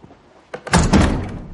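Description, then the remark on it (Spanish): A wooden pantry door in a fortress is pulled open: a short knock, then a heavier thudding rattle that swells and lingers as a rough, noisy scrape. No one speaks. “Uno le abre la puerta de una despensa.”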